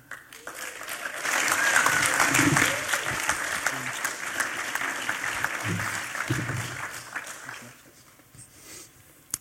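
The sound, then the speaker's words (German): A crowd applauds loudly and steadily as a guest is welcomed, a dense wash of clapping that swells early, holds for several seconds, then gradually thins and fades toward the end, with faint murmuring voices beneath. “Das ist die Applaus, schön bist du da, du.”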